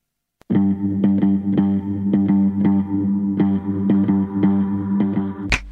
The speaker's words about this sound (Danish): Okay, så lad os lige sætte noget musik på, mens du øh, øh, ringer en lyt op.